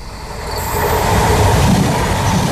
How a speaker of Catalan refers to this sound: Uh, anem a la R3 o què? Va, agafem Va, el tren. Ens doncs pugem al tren, vinga.